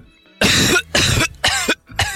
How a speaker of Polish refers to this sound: To co mówiłeś, bo nie słyszałem, bo kaszlałem.